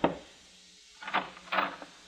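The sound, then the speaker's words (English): Knocking on a wooden door at the Hotel Alexandria in central Cairo: one rap, a short pause, then a quick run of three or four hollow, moderately loud knocks, with no voices. “I parked on a narrow side street and soon after that was knocking at Madeline's door.”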